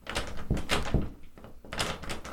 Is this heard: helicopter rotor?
no